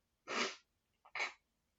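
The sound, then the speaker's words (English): Two sharp sneezes, a loud burst followed about a second later by a second slightly shorter one, with no talking around them. “And excuse me oh wow, that was loud.”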